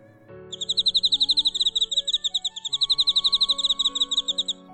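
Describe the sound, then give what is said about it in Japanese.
A cricket, rubbing its wings together in a reading of the story The Very Quiet Cricket, chirps in a fast, steady run of high, shrill pulses lasting several seconds, with soft sustained musical tones underneath and no talking. “And this time he chirped the most beautiful sound that she had ever heard”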